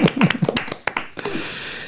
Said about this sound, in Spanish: bueno, muy buena noche, no hemos dado un fuerte aplauso para nuestro técnico que se lo merecía como todos los días.